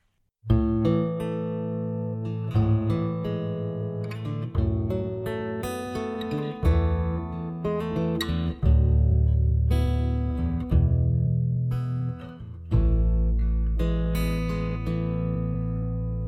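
Instrumental opening of a song by a Styrian band: sustained, organ-like chords and a melody shift every couple of seconds at a steady, fairly loud level, with no singing or talking yet.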